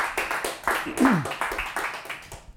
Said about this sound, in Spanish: Si tú lo crees, dale un aplauso fuerte al Señor. Vamos. Come on, if you believe it, give the Lord a hand clap.